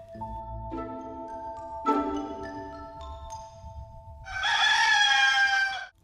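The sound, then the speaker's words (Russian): A rooster crows once, loudly, near the end, after a few soft sustained musical tones that ring out one after another. “Уже петухи пропели, а в лесу не было слышно ни голосов, ни шагов”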